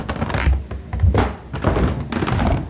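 Heavy, muffled footsteps thud across a floor overhead, several dull low thumps in an uneven walking rhythm, fairly loud with no voices.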